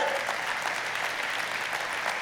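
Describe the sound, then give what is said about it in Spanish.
Steady applause for what Jesus did, a dense wash of many hands clapping at an even, loud level for the whole stretch without pause or voices standing out. “¿No le da ganas de aplaudir lo que hizo Jesús por usted?”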